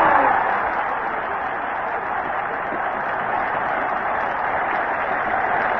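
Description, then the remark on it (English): A big stadium crowd on the bank roars and cheers without pause after a long goal kick in a rugby match, a dense, loud wall of noise that holds steady for several seconds with no voices standing out. “The uh, crowd is going absolutely crazy over on the bank.”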